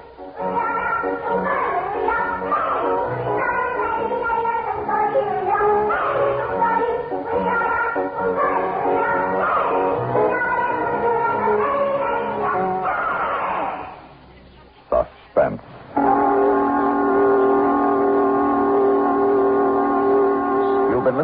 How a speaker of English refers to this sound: listening to a Korean Christmas carol written for suspense by George Bamber